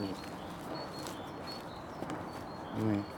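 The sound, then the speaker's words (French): Domestic sheep greet a person approaching them: one sheep bleats close by near the end, a short wavering call over a steady background of rustling and soft hoof-like shuffling, with a fainter call at the very start. “dès qu'on approche un peu de près, euh, euh, elles disent bonjour, bah, à leur façon. c'est des, moutons, domestiqués, moutons domestiqués, c'est pas des moutons sauvages.”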